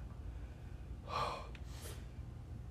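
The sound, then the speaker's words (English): A single deep gasping breath drawn in sharply after laughing, followed by a softer exhale, fairly loud against a low background hum with no talking. “I gotta take a breath.”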